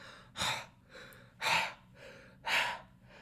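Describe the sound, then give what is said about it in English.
Heavy, deep breathing of the character Rey on a desert planet in the opening shot of a film: three loud, airy inhales or exhales about a second apart, separated by quieter breaths, with no talking. “essentially mirroring the teaser of TFA with Finn's breathing of”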